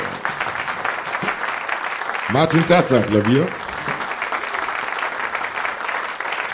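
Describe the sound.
Steady applause from an audience fills the whole recording, a dense crackle of many hands clapping, while a man's voice briefly speaks over it in the middle.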